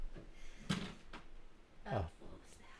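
A few muffled clunks and knocks at irregular intervals, like small objects being bumped and toppling over, with a low rustle and a brief sliding scrape near the end.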